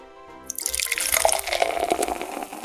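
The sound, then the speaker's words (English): Wave Jammer double IPA beer pours into a glass in a steady stream, a fizzy splashing rush that starts suddenly after a brief quiet moment and keeps going, with no one talking. “So as I pour that, it looks like it has a thin head on it with a beige, maybe a orangish hinge to it, but it's not completely transparent.”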